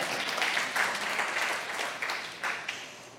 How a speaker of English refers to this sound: Yes, we have one person who's really excited about that. Y'all can clap.